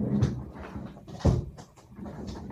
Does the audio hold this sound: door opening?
yes